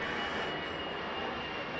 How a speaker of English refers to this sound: Um, here at Citi Field. You know, as we listen to the planes go overhead,